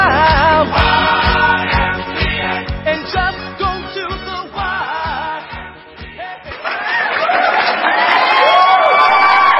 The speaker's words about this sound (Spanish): pinches aplausos, maldita sea.